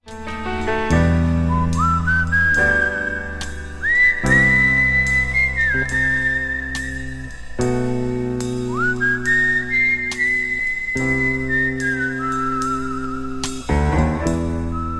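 A bouncy pop song plays loud and close, with a steady bass line and chords under a high, whistle-like melody that slides up between notes; no singing is heard.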